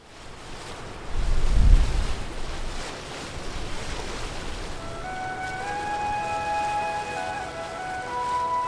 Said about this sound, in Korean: 파도가 치네요. 배를 타고 파도를 헤치며 항해하고 있습니다.